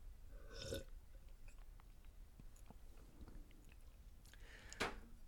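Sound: sipping and swallowing water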